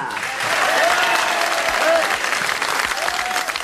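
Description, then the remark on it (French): An audience applauds a guest from Créteil as he is introduced on stage, in a steady, dense wash of clapping that holds at a fairly loud level for the whole stretch, with a few faint whistles or cheers rising above it. “Mesdames, Mesdemoiselles, Messieurs, je vous demande d'applaudir”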